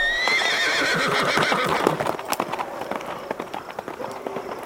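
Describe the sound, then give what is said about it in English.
A horse gives a loud, wavering whinny, then hooves clip-clop in a quick galloping rhythm that grows fainter as it moves away, as Billy Zane rides it off to freedom. “You just take that horse and you ride it to freedom.”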